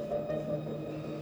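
Loud, dark, ominous stage music for a theatre performance holds a low sustained drone, a steady murky tone with no clear beat, playing on its own without any voices.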